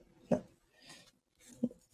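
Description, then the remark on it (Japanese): Quiet scraping and rubbing against paper with the closed tip of stick-type scissors made by Plus, rubbing down a transfer sticker, with two short firmer taps or strokes and a soft hissy swipe between them, with no talking. “で、こすってます、いつも。”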